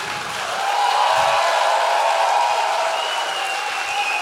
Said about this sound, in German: Wir schnacken gleich noch mal ganz kurz mit euch, aber jetzt noch mal Applaus